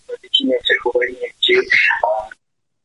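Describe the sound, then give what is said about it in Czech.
A radio plays in the background of a caller's phone line, its voice thin and band-limited, running in short bursts for a couple of seconds before falling silent. “Ne, ne, to bylo rádio, které hrálo v pozadí”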